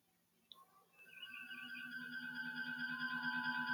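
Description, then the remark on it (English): Starship bridge ambience played by an Alexa smart speaker on request: a short electronic chirp, then a steady low hum swells in beneath layered, gently warbling sci-fi tones that hold continuously and cycle on, with no one talking. “If you close your eyes, we'll be right on the Enterprise NCC 1701.”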